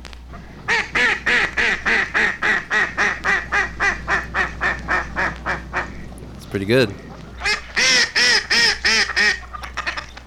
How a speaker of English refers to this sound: we offer the following as being the most effective lures. Lures. First, the welcoming call of the hen mallard.